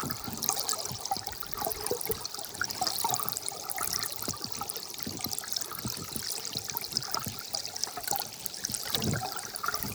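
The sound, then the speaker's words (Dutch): A small, partly covered stream of water trickles and babbles steadily for the whole stretch, a bright, hissy flow dotted with little splashes and gurgles, with no voices. “dat je in een, een smaller stroompje en misschien zelfs een beetje overdektachtig ja”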